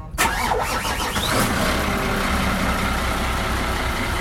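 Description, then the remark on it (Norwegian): A motorboat's single engine cranks and catches, with a rising whine in the first second, then settles into a steady, loud rumbling idle. No voices. “Eller så har vi da i dette tilfellet motorbåt, og det kan være så mangt.”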